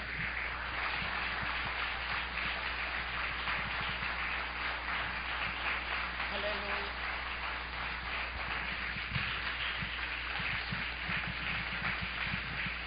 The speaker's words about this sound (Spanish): Un aplauso a Dios en esta hora y dígale sí, amén.